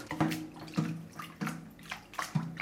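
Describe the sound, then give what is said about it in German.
A brush stirs salt water, ordinary water with salt added, in a bowl for smearing cheese, making about four or five rhythmic sloshing swishes. The splashes are fairly loud, with no talking over them. “Da haben wir ganz normales Wasser. Da kommt dann ein Salz dazu. Dann haben wir die Bürste. Da rühren wir das Ganze ein bisschen um.”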